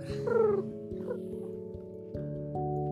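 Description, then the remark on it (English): Someone mimics a dove's coo with low, droning hoots, rising briefly at the start and then holding steady in a few sustained stretches, while a faint regular ticking runs underneath. “And did you know that doves make a sound like this?”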